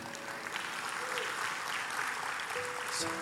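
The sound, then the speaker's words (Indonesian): An audience claps together in sustained, dense applause for a few seconds during a sermon, with faint tonal sounds like a held organ or keyboard note underneath. “Bukankah dia layak terima tepuk tangan kita?”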